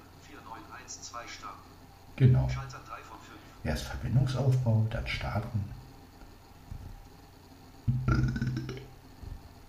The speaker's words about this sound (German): Das war ein Rülpser. Der wird nicht geschnitten.